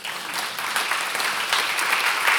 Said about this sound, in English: Yes, yes. Sure, we can applaud.